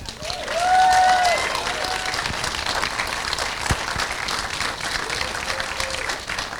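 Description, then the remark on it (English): An audience breaks into steady applause as Keir Dullea is introduced. Dense clapping spreads across the whole stretch, with a few whoops and a cheering tone rising early on. No speech over it. “Uh, let's, uh, let's hear it for the one, the only, Keir Dullea.”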